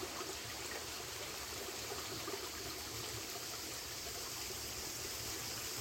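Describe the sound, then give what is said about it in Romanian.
Water from the holy spring of Saint Athanasius the Athonite, on the grounds of the Great Lavra monastery, trickles and splashes in a steady, continuous flow, a bright rushing with no pauses and no voices over it. “Chiasma Sfântului Atanasie Atonitul.”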